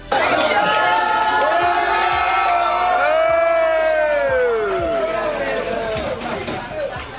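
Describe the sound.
A loud crowd cheers and whoops continuously inside a local Waffle House where Trevor Lawrence dined after Jacksonville's 31-30 win over the Los Angeles Chargers, with overlapping shouting voices rising in sustained excited tones for several seconds before tapering slightly.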